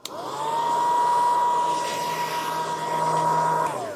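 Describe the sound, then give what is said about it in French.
A hair dryer at a hairdresser's roars with a steady whirring hum and airy rush, switching on abruptly and running evenly for a few seconds before cutting off. “accompagner sa maman pendant des heures se faire une choucroute de cheveux chez le coiffeur.”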